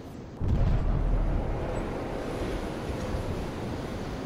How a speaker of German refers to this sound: Airguns, also Luftkanonen, lassen explosionsartig Luft entweichen. Die so erzeugten Schallwellen dringen in den Meeresboden und lassen Rückschlüsse auf Ölvorkommen zu.